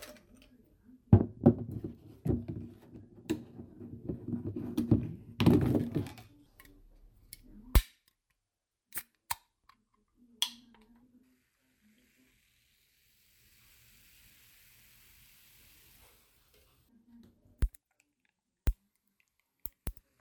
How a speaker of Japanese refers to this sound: 1月26日お昼12時頃。この日は仕事が休みで午前中の用事を済ませ、缶チューハイをグラスに入れてるところです。えー、これ缶チューハイわざわざグラスにね、入れ替えるんだ。あ、氷になるほどね。缶を開けた後、氷の入ったグラスへ注ぐのですが、氷がパンパンと割れる音が好きです。